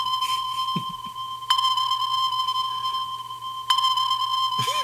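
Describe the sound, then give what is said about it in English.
A sonar ping sound effect: two sharp, high electronic pings about two seconds apart, each ringing out over a steady tonal hum with a faint low drone underneath. “Did you say sonar?”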